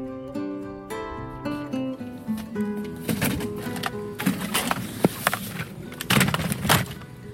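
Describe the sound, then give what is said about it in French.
A short run of steady tones gives way to a string of clattering thumps and clunks as a stroller chassis converted into a cart for carrying packaged chocolate bars is shoved and wedged into a car, with no talking. “Alors là, je viens de mettre ce que j'appelle la chocomobile dans la voiture.”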